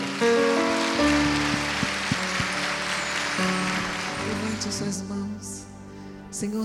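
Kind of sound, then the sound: crowd, audience applauding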